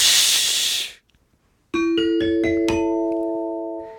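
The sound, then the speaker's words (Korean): A voice lets out a loud, breathy hiss imitating a steam locomotive, cuts off, and after a short silence a bright rising ding-dong-dang chime of stacked notes, marking a correct answer, rings out and lingers. “증기기관차 제가 증기기관차처럼 네, 공치”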